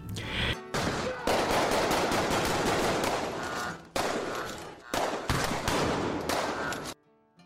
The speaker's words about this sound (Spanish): Creo que eran las 5 de la tarde cuando estaba cerrando la tienda. Dos hombres armados empezaron una balacera contra mi local.